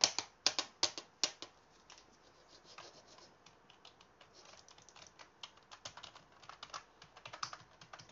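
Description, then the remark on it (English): Rapid clicks of typing on a computer keyboard, a burst of sharp keystrokes at first, then lighter, uneven tapping that continues steadily, with no voices. “You can't type on the internet with the keyboard and mouse.”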